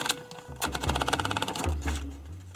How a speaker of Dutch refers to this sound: Achter de schrijfmachine beginnen tikken en zien wat eruit komt. Het is mijn methode.